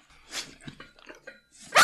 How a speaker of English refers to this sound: Oh my god, dog, calm down.